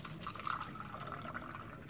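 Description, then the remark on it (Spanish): Steady stream of tap water running and splashing into a glass, a continuous hissing flow with a slight gurgle, fairly quiet, with no voices over it. “Pero no falló, en realidad era que el agua está estancada. ¿Qué pasó con el agua?”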